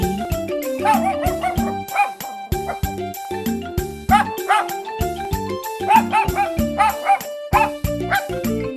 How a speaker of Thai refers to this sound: เจ้าสมศรีสุนัขคู่ใจของลุงทองดี ก็เห่าใส่เจ้าจ้อยเสียงดังจนลุงทองดีต้องลงมาจากบ้าน เพื่อห้ามเจ้าสมศรี